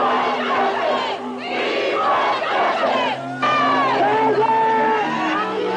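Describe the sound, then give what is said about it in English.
Hundreds of protesters marching at night to the 77th precinct in Crown Heights, where dozens of helmeted officers confront them, shout and yell continuously, many overlapping voices rising and falling in loud, agitated cries, with a brief dip in the din before it surges back even louder. “That night, hundreds of protesters marched to the precinct where they were confronted by dozens of helmeted officers.”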